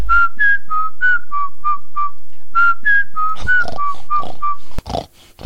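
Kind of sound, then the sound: human body sound, whistling a tune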